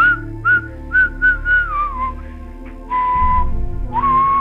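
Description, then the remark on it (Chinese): Someone whistles a cheerful little tune, a run of short bright notes followed by longer, gently sliding ones, with a low rumbling noise joining in beneath the last few notes. “嘴里还得意地哼着小曲儿。”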